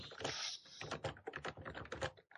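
Rapid, forceful typing on a computer keyboard, loud, with dense clacking keystrokes in quick irregular bursts and no voices.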